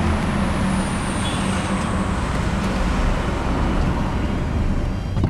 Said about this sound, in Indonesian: sorry bayar tol dulu tadi jadi berisik